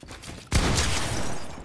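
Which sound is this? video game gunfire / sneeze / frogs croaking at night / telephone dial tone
video game gunfire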